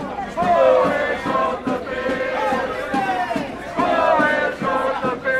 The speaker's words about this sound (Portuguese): Cristas percorre as ruas com uma enchente de pessoas atrás, não só de apoiantes, mas também de jornalistas, câmaras e cliques de máquina fotográfica.